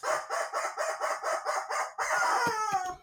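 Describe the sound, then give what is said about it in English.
A rubber chicken squawks loudly: a quick run of about eight rhythmic squeaky honks, then one longer, strained wail that wavers and trails off. “And the rubber chicken says”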